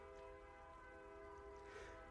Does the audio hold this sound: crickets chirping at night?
no